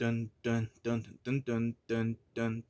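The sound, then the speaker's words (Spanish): A single voice sings a punchy, rhythmic melody in seven short, loud, evenly spaced bursts, vocally imitating a dramatic heroic superhero film fanfare, with brief gaps between notes. “así como suena en las películas cuando va a salir la Mujer Maravilla”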